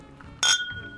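Glasses clink together once in a toast, with a small glass of water, a bright strike followed by a clear ringing tone that fades slowly over a quiet background with no talking.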